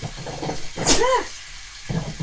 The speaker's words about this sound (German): Gesundheit.